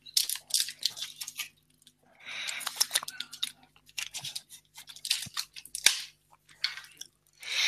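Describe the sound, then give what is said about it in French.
Someone takes a drink of water: a run of wet clicks, sips and swallowing noises in irregular bursts, with brief pauses between them and no talking. “Je vais reprendre un peu d'eau.”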